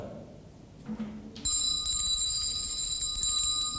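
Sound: bell being rung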